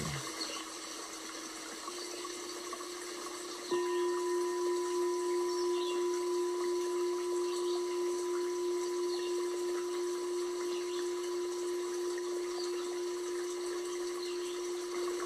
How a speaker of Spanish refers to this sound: Estoy parada junto al río. El agua fluye tranquilamente.